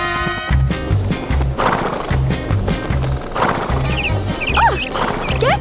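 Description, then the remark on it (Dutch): A horse gallops hard, its hooves pounding in a steady, driving rhythm throughout, with loud snorting and whinnying calls breaking through near the end. “Het is een rover die een jonkvrouw heeft ontvoerd en zijn paard heel hard laat rennen. Het paard briest omdat het moe is.”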